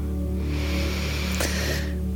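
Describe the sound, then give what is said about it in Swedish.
One long, deep breath drawn in through the mouth, a soft airy rush that swells and holds for over a second before fading, over a faint steady electrical hum. “Och vi andas in igen.”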